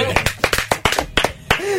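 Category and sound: crowd, applause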